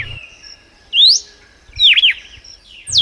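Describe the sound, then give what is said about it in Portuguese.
A red-cowled cardinal (cardeal do Nordeste), a Brazilian bird about 17 cm long, sings clear, whistled phrases that sweep up and down, delivered in three bright bursts separated by short pauses, loud with no talking. “Paulo Augusto descreva o cardeal do Nordeste pra gente.”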